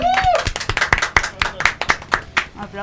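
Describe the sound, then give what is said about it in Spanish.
Steady hand clapping, a quick run of sharp claps over about three seconds, with people's voices and laughter mixed in underneath, as a returning guest is welcomed on a live broadcast. “Ay, gracias por la aplauso.”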